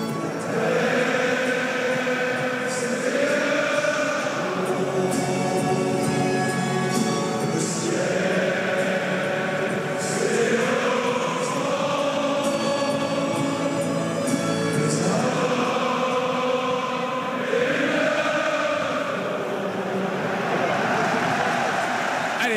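A huge stadium crowd sings a slow traditional anthem in unison, loud and sustained, its melodic phrases rising and falling in long swells roughly every five seconds with a constant roar underneath.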